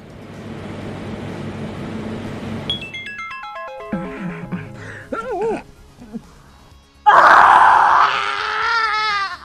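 A low rumble, then a descending run of electronic beeps, before a loud, strained scream of a woman in childbirth bursts in and holds, wavering, for the final seconds.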